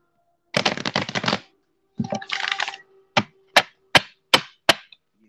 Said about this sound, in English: But I will shuffle the cards because people be like, he ain't got no cards.